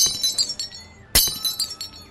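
A glass object on a shelf smashes into pieces with one sharp, loud crash partway through. Bright, high tinkling shards scatter and clink before and after the main break, with no voices.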